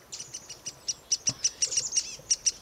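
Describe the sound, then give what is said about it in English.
A foraging mixed flock of chickadees, kinglets and a downy woodpecker calling in a temperate woodland, with many thin, high-pitched chips and tseet notes tumbling over one another in a busy, irregular stream. “A closer look and listen reveal that this foraging flock includes several species of birds chickadees, kinglets, and even a downy woodpecker.”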